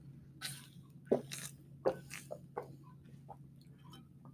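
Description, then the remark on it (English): Someone takes a drink of water: a few quiet, wet gulping and swallowing sounds with small mouth clicks, spaced irregularly over a low steady hum, with no talking. “Hang on, I gotta get a drink of water.”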